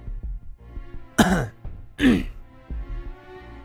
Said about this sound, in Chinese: 何三哥咳嗽一声。